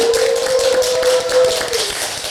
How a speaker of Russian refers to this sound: Привет, давайте поздороваемся, надеюсь, нас будет слышно, давайте похлопаем друг другу.